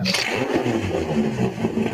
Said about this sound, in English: 30 years ago, that tractor there was plowing fields. Today, its purpose is much different.